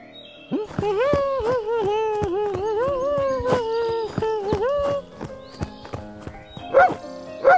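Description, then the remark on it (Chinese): A dog barks in a quick, run-together series of high, wavering yips for several seconds while spinning in circles chasing its own tail, followed by light tapping clicks and a couple of short, sharper sounds. “啊，原来又是小狗啊！”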